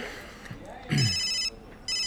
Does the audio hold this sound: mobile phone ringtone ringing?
yes